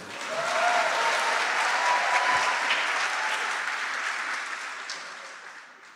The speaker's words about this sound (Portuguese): Pode ficar de pé aí, por favor. Vocês podiam aplaudir melhor, gente, a minha esposa.